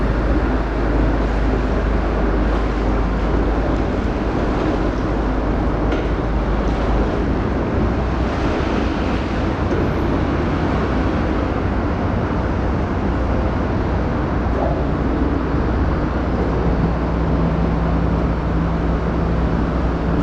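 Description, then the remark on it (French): A motor-driven drawbridge, raised about 8 metres, lowering back down to its stop, heard as a loud, steady low mechanical rumble with a broad noisy wash over it, continuing unchanged for about twenty seconds with no voices. “J'ai enregistré tout ça, le pont est redescendu.”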